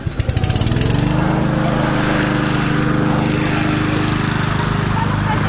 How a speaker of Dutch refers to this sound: Grasmaaien.